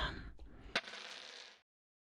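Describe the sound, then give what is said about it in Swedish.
Three dice tumble across a hard surface, rolled for a Wits and Survival check: a low rumble, one sharp clack, then about a second of bright rattling clatter that stops abruptly. No one speaks. “Två lyckade ändå på tre tärningar.”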